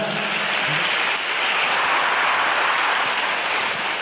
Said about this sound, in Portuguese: Dá uma salva de palmas, vai.